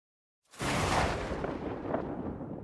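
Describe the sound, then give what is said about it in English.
After a brief silence, a sudden loud thunderclap-style lightning strike bursts in with a sharp crack, then a sustained roaring rumble that holds steady and slowly fades, with no voices. “Well, it's good that you don't hear it because I'm gonna probably put the lightning strike in post.”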